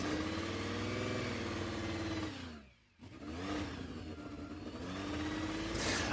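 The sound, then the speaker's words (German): A Porsche 356 Speedster engine runs loud with a throaty, chugging tone. It holds steady revs, drops off briefly midway as the throttle lifts, then climbs back up. No voices. “Naja, also ich höre ein bisschen Rasenmäher Bulldog raus.”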